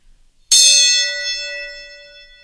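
A single gong strike with a sharp metallic attack, then a bright, shimmering ring that sustains and slowly fades over about two seconds. It is fairly loud, with no voices.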